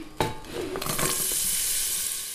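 Leek, celery, carrots and potatoes sizzle and fry in a pressure cooker pot for a vegetarian lentil soup, a steady hissing crackle that swells after a clatter of stirring and stays loud, with a few scraping knocks early on.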